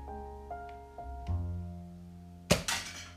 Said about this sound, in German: Yeah, ähm, also auf jeden Fall habe ich vier Zielscheiben. Da kriege ich auch vier Schüsse. Also vier Pfeile. Und jetzt gucken wir mal, ob wir treffen.